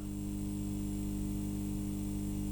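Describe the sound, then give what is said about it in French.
A steady electrical buzz from a fluorescent tube's magnetic ballast, the part that limits the electrical voltage with a copper coil: a low mains hum with bright harmonics, continuous and unchanging at a moderate level, with no voices. “Ce bourdonnement est dû à une petite pièce présente dans chaque lampe à décharge, qui sert à limiter la tension électrique, le ballast.”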